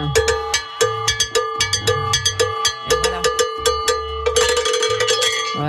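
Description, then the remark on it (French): A hand-held salsa cowbell, the campana, typical of salsa and especially Colombian salsa, is struck in a quick, driving rhythm of sharp metallic clanks with a steady ringing tone, over a low drum pattern; the hits get denser and brighter toward the end. “les auditeurs voient pas, mais c'est une cloche. Euh, c'est une cloche. on dit campana.”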